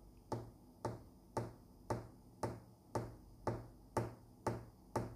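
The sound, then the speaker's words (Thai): A steady tapping beat, about ten sharp, evenly spaced taps in five seconds, each with a short ringing tail, keeping a metronome-like rhythm with no voices. “BPM นี่ย่อมาจาก beat per minute นั่นก็ เออหมายถึงเป็นจังหวะครับ เป็นจังหวะเคาะ เป็นจังหวะเคาะเออถ้าเกิดว่าเออถึง 80 ต่อต่อหนึ่งนาทีครับ”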